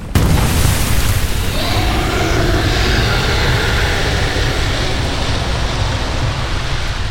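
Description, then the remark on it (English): A sudden, loud explosive blast erupts into a deep, continuous roar of gray flame, rumbling heavily and steadily for several seconds with no letup and no voices. “exploded from the rubble and loosed yet another volcanic blast of growling gray flame.”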